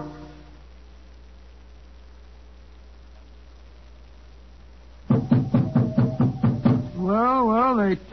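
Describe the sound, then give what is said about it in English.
After several seconds of low background hum, about nine quick, loud knocks on the wooden door of the Elephant House land in a steady burst, followed by a wavering, warbling tone. “Knock again, old fellow, will you?”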